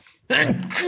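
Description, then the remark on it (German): A single loud sneeze bursts out after a brief near-silence, with a sharp breathy onset and a voiced, noisy release. “Gesundheit.”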